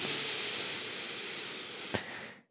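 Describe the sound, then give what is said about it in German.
A long, steady, airy inhale fills the lungs for over two seconds, a soft breathy hiss with a small click near the end before it fades out. No one speaks. “Weil wir, wenn wir richtig tief atmen, so wie wir gerade gemacht haben und jetzt ja nochmal machen könnten, also richtig die Lunge füllen”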